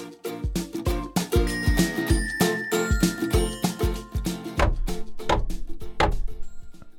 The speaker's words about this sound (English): What's that banging I hear in the kitchen? It sounds like Dad is tenderizing a chicken.